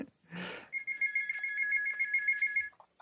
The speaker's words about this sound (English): You gotta get that. Yeah, Whose phone sorry. is that?